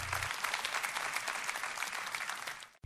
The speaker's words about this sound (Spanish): Pero, amén, adelante, aplaudan por eso.